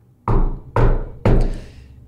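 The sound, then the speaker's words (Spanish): Three heavy, forceful knocks on a door at night, evenly spaced about half a second apart, each landing with a loud booming thud that rings out briefly. No voices are heard. “Una noche después, los toquidos de la puerta volvieron, pero más violentos.”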